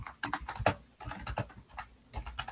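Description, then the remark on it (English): Rapid, irregular clicking of keys on a computer keyboard as a man types, picked up by his loud microphone; fairly loud, with bursts of keystrokes separated by brief pauses and no voices. “Well, right now he's got a loud ass mic because I'm hearing everything he's typing”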